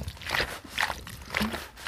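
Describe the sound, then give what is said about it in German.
Grapes being crushed underfoot by stomping, with juice sloshing out: a steady series of wet squelching stomps, about four in under two seconds, moderately loud with a slushy liquid edge. “Oh, guck mal, wie viel Saft da rauskommt.”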